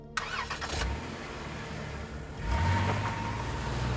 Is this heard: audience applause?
no